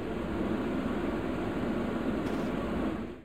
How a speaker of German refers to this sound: Und jetzt muss das Ganze nur noch getrocknet werden. Dafür eignet sich natürlich dieser Handföhn. Ich benutze den Trockner, um die Sache zu beschleunigen.